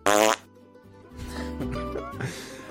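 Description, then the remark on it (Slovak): A loud, buzzy fart sound effect bursts out at the start, short and raspy, followed by a lower rumbling tail with faint murmuring in the background. “A práve preto sa stali virálne, pretože do tých videí dodali podobné zvuky.”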